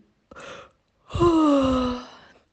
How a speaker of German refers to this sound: Und wenn ihr den gefunden habt, dann strecken wir uns und recken uns und gähnen und machen Töne, sowas wie